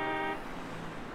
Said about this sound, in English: So for me, those were some cars that were pretty close by. And I'm drawing them whizzing by. Got a couple honks in there, I heard.